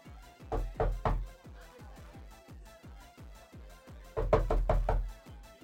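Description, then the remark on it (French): Someone knocks on an apartment door in a steady, rapid series of raps that run throughout, swelling into two louder, harder bursts near the start and near the end. No one speaks. “Tu, tu peux m'ouvrir pas vu, mais il y a un message sur la porte.”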